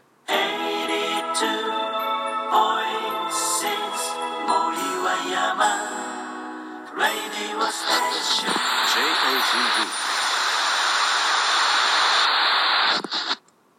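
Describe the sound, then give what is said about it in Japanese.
Bright instrumental background music, the "Nami yo Kiitekure" opening BGM played by pressing a button at the bottom of an app, plays at steady volume, its tonal melody giving way midway to a dense, hissy, static-like wash before cutting off abruptly near the end. “まず一番下に4つくらいボタンがあるじゃないですかここ押すとあれなんか音が鳴ったりとかするんですよねこれまだ試してないんで一旦聞いてみてもいいですか一番下にあるのが「波を聞いてくれ」オープニング BGM これ”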